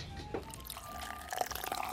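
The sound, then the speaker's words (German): Federweißer, a young, partly fermented wine, pours steadily into a glass at the Augsburg city market in Bavaria, with a bright trickling splash and faint fizzing crackle throughout, no voices. “Spritzig fließt er ins Glas, ein typischer Federweißer, kein Most mehr, aber auch noch kein Wein, irgendetwas zwischendrin, aber überaus süffig.”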